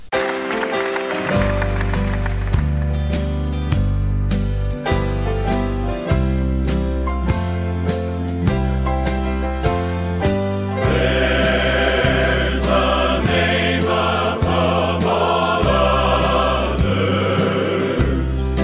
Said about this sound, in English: We'll have some more wonderful worship music soon on Heart and Soul.